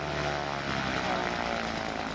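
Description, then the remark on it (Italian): A small Cessna propeller plane, flown by Mattias Rust, coming down in Moscow near Red Square; its engine drones steadily and loudly, a continuous buzzing hum with a low, even pitch, with no voices over it. “Mattias Rust tocca terra e attraversa con calma le strade della capitale, giungendo placido sino alla Piazza Rossa, dove smonta dal suo Cessna salutando.”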